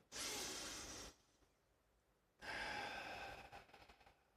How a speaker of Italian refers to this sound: consiglio grandissimo è non guardarti la tv, non guardare YouTube quando prendi una pausa, invece fai un bel respiro, fai tre bei respiri profondi.